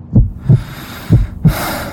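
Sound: heartbeat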